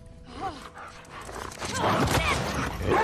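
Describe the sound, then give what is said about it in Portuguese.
A dog in a video game barks a few times amid dense, noisy background sound, the barks mixed into a busy, continuous din that grows louder toward the end. “Mata o cachorro não.”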